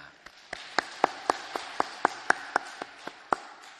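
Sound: audience applauding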